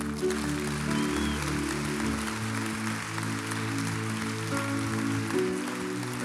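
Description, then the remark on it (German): A large crowd applauds steadily for several seconds at a church service in Zürich, a dense continuous wash of clapping mixed with sustained music playing underneath. “Applaus, come on.”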